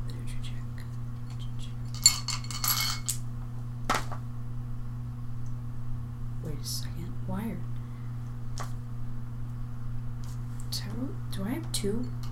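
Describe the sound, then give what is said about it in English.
Dice are rolled for an arts and literature check in a tabletop game, clattering across a tabletop in a short burst of rattling clicks, followed by a single sharper knock, with quiet voices murmuring afterward. “Also, roll uh, an arts literature check after that.”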